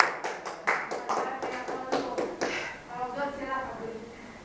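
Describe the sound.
A group applauds a woman being honored at the speaker's call, with quick, overlapping claps that ring out sharply for a few seconds, then blend with murmuring voices and thin out toward the end.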